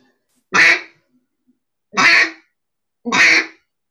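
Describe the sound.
Three loud, raspy quacks blown on a duck call to imitate a duck, evenly spaced about a second and a half apart, each a short broad burst with silence between.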